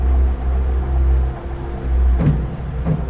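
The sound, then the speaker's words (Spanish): A Rolls Royce car engine rumbles low and steady as the car drives out of a hangar, its deep drone swelling and easing, with a couple of brief rougher bursts toward the end. No one speaks. “El coche sale del hangar.”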